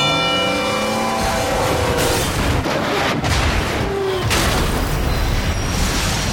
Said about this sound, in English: on the tracks we have Bull, a million pound freight train that takes a mile to stop